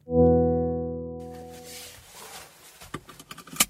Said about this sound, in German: Das ist der Sound des ID.3 von Volkswagen. Auf der Automesse IAA Mobility in München im August hat VW das Elektroauto zum Testfahren angeboten.